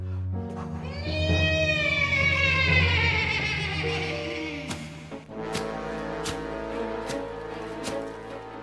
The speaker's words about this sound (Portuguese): Foi quando Adriano ouviu o alazão, o cavalo fantasma de seu falecido pai.